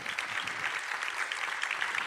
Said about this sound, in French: On vous applaudit à nouveau. Merci à tous les quatre.